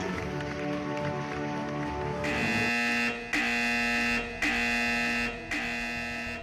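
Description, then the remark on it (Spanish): An emergency siren starts up partway through, sounding in loud, harsh, buzzing blasts about a second long, separated by brief gaps, with no one talking. “De la nada se activa la sirena de emergencia.”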